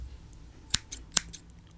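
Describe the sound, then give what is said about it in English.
Scissors snip close by, as if cutting hair: a few crisp metallic clicks in quick succession, two sharper than the rest, over a quiet background with no talking. “Then Sharkman gets his scissors out and starts cutting your hair.”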